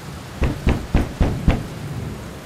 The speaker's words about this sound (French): Un orage terrible. Le tonnerre grondait si fort qu'il faisait trembler les arbres. Les éclairs lézardaient le ciel et une grosse pluie tambourinait sur les tuiles du toit. Tout à coup, on frappa à la porte.